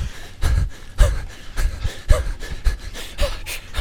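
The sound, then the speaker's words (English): Heavy, rapid panting with sharp rhythmic breaths and low thumping footfalls beneath, of a person gasping for air while running hard back toward an entrance. “bust through the guys in the back, running, running, running, like breathing super heavy.”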